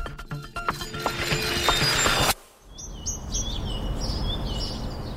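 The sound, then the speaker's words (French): A bright, dense patch of mixed sound cuts off abruptly, then a bird sings a series of clear, repeated high chirps and whistled phrases over a soft outdoor hiss. “Des recherches récentes suggèrent que l'écoute d'enregistrements de chants d'oiseaux, même avec un casque, peut atténuer les émotions négatives.”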